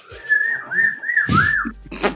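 A parakeet whistles a run of four clear, swooping notes that rise and fall at a steady mid-high pitch, fairly loud, then a brief burst of rustling noise.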